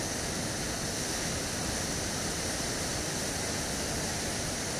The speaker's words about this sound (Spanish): Puedo sentir cómo me voy con esta agua fluyendo por cada vibración que mi cuerpo representa agua.